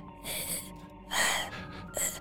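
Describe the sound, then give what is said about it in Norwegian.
A voice imitates the creepy heavy breathing heard on a phone call from a hidden number: three drawn-out, breathy rasps, each a hissing inhale-exhale, with short pauses between and no words spoken. “Og så er jeg bare sånn Sånn creepy pusting, liksom.”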